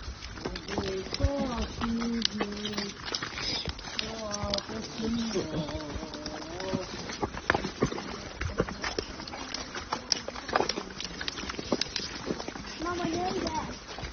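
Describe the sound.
Reindeer ridden by a Mongolian guide and an Australian family through swampy forest on the way to the Tsaatan tribe: irregular hoof thuds and squelching steps with scattered clicks and splashes, while voices talk and call on and off over the steady, muddy plodding.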